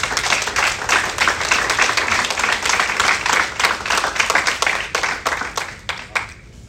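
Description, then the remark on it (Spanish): A church audience claps steadily for several seconds, giving applause to Christ, a dense, even patter of many hands that stays loud throughout before thinning out into a few last scattered claps. “Dar un aplauso a Cristo fuerte, por favor.”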